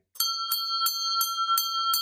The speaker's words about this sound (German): wir haben die Klugscheißer-Glocke noch nicht ausreichend geläutet heute. Vielleicht, äh, Sophia, hau die Glocke.